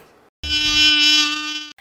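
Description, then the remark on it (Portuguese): An Aedes aegypti mosquito whines in one steady, high-pitched buzz for just over a second, loud, then cuts off abruptly. No voices are heard. “A dengue é uma doença viral transmitida pela picada do mosquito Aedes aegypti.”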